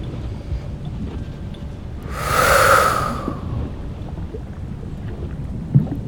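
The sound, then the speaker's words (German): One forceful, breathy snort pushed out through the mouth while a stone is thrown with full force into a volcano, swelling and fading over about a second, fairly loud above a steady low rumble of background noise. “Dabei schnauft sie einmal fest durchs Maul aus.”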